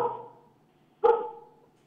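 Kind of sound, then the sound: animal, dogs barking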